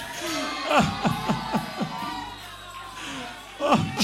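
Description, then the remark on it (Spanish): A worship crowd shouting the name of Jesus together, with a run of rapid, overlapping cries that fade to a murmur and then swell again near the end. “Yo no quiero escucharte gritar.”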